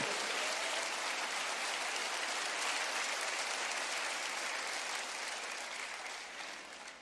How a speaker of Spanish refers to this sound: Amén. Amén. denle ese aplauso fuerte a Jesucristo.